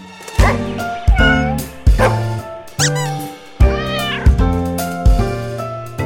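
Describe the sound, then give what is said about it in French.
Grumpy Cat, a female cat whose real name was Tardar Sauce, meows repeatedly, about seven loud calls in a steady rhythm, each a drawn-out, tonal cry with rising and falling pitch, with no voices or other sounds around them. “Grumpy Cat, le chat grincheux, avait une bonne raison de faire cette tête”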